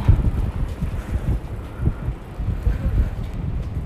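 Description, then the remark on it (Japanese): Strong wind in Asakusa, strong enough to knock bicycles over, buffets the microphone in continuous low, rumbling gusts, loud, with irregular thumps rising and falling throughout and no voices. “もうねほんと風が強い、えー、自転車という自転車がなぎ倒され”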